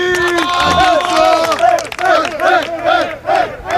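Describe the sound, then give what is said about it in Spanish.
A group of 27 calcio storico players in Florence bellow rhythmic battle shouts of 'Aú, aú, aú!' in unison, loud, repeated chant-like cries rising and falling in a steady beat, with overlapping voices forming a rough crowd roar. “gritos como estos han resonado por las calles de Florencia.”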